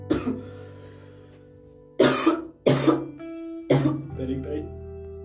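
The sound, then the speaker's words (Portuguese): A harsh coughing fit from a person whose cough has come back after a day without coughing: one cough, a pause, then three more forceful coughs in quick succession, each with a rough, voiced burst and raspy tail. “Nossa, eu não acredito que a tosse voltou, velho.”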